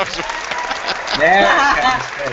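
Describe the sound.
A quick run of hand claps patters steadily throughout, fairly loud and even, with a voice and laughter rising over them partway through.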